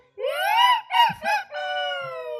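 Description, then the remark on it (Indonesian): A single loud rooster crow, rising into a long strained note, breaking into two short syllables, then ending on a sustained drawn-out tail. No talking. “Yang ayam.”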